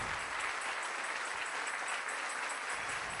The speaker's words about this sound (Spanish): Así que vamos a darle palmas al Señor. Gracias, Padre. Gracias, Señor.